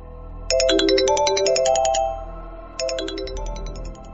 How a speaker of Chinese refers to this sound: 正打算下去看看，手机铃声响了起来，接通一听是速递公司送邮件的。